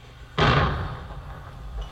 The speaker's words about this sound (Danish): Det var ikke nogen dør. Det var noget, der eksploderede.